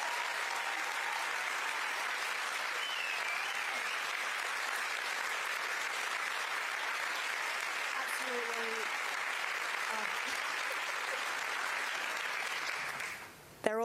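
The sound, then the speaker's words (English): An audience claps for the speakers just introduced at a talk, a steady, dense, even wash of applause for about thirteen seconds that holds at a constant level before cutting off abruptly at the end. “Now, please give them all a round of applause.”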